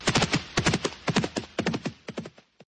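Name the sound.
horse hooves clip-clopping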